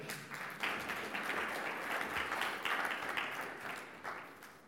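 An audience applauds a volunteer steadily for several seconds, a dense wash of many hands clapping at a fairly even, moderate loudness with slight swells.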